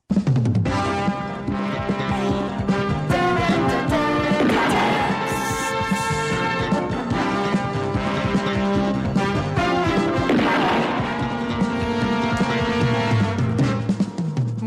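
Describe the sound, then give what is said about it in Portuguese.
A loud, driving theme tune of a police TV series that premiered on RTP plays continuously, punctuated by a couple of sharp, crashing bangs like gunshots mixed into the music. No one speaks. “Pois bem, é uma série policial, eh, deu para perceber, não é? Sim. Até via tiros e não sei o quê.”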